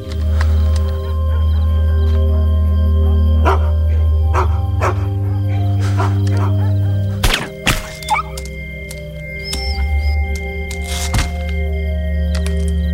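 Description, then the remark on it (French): Dogs bark in sharp, scattered bursts over a steady low droning hum, with a couple of heavier thuds; the barks come irregularly and sound fairly loud. “Alors on m'a dit Toi, Boaz, t'es en avant du commando, tu prends un silencieux et tu nettoies les clébards.”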